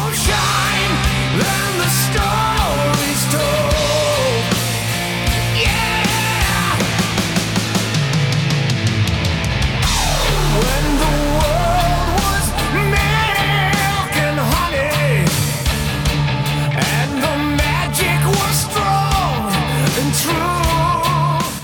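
A loud, dense heavy metal cover from a 2010 album of covers plays throughout, with a powerful male voice singing over thick distorted guitars and steady drums, the full band holding a constant high volume.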